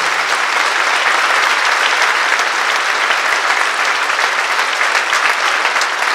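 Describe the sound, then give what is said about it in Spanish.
An audience applauds steadily for several seconds, a dense, even wash of many hands clapping at a constant loud level with no talking over it. “Den un aplauso al Rey de Reyes y Señor de Señores.”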